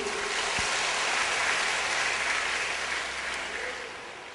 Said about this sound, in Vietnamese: ở đây ai biết hút thuốc giơ tay lên không có ai giơ tay hết như vậy là tốt xin tất cả hãy dành cho tràng pháo tay để tán dương